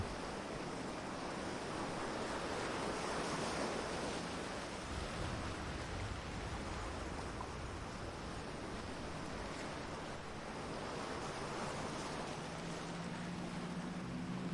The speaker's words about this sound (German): Die Wellen schlagen gegen die Felsen, die wie stumme Wächter aus dem Wasser aufragen.